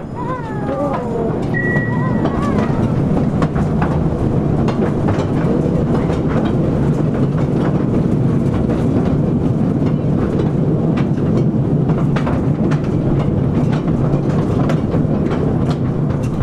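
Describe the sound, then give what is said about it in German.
A mine train rattles steadily through dark tunnels of an old copper mining area at Sangerhausen in the Mansfeld region, a loud continuous rumble packed with irregular metallic clanks and clatter, with a brief high squeal near the start. “Ja, durch diese dunklen Stollen bin ich gestern gefahren im Mansfeldischen in Sangerhausen, um genau zu sein, eine alte Bergbauregion, Kupfer, aus dem Kupferschiefer heraus, natürlich auch Silber, Gold und andere seltene Metalle.”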